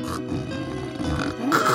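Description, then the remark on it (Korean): A man snores loudly during a concert performance, in rough, rattling grunts that sound almost like a pig's snort, ending in a rising, nasal wheeze, with no talking over it. “어머 어머 어머 코를 골며 잠깐 짖었습니다.”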